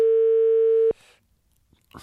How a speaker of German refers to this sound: Hast du die Nummer schon gewählt? Ich habe die Nummer gewählt.